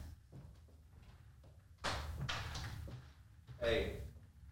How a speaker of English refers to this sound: I'm going to wait for you to close the door.